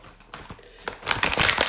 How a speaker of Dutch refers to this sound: Nog een keer plastic openmaken.